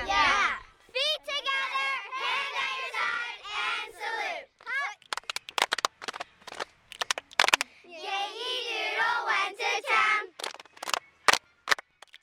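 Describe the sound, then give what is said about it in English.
A group chants loudly in unison, breaking into bursts of sharp, rhythmic handclaps between the shouted lines, then claps a final quick pattern to finish the routine. “All right, can we hear your clap?”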